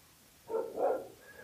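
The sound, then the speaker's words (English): A dog barks twice in quick succession in a yard at about 2 a.m. in North San Juan, somewhat muffled, as if from outside. No one speaks during the barks. “Oh, there's a dog barking in the yard.”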